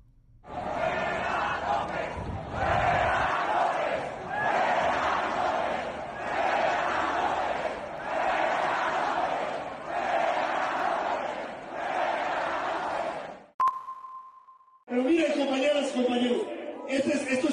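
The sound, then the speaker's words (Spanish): A large crowd in the Zócalo chants the slogan "Fuera López" in unison in the morning, loud rhythmic bursts repeating about every two seconds, followed by a short electronic beep and then someone speaking. “Fuera López, fuera López, gritaba el Zócalo ayer, en la mañana.”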